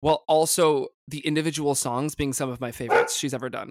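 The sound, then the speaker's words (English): A dog named Chuck barks several times, the short sharp barks overlapping a person who keeps talking steadily through them. “That is my dog.”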